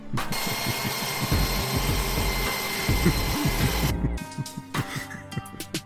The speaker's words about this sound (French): La perceuse à percussion 1100 watts Black Decker est idéale pour percer toutes sortes de matériaux.